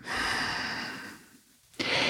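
Loud nasal breathing from a breathing exercise of two quick inhales through the nose followed by one long exhale through the nose: a long, airy breath that fades out, a brief hush, then another sharp breath drawn in through the nose. No talking.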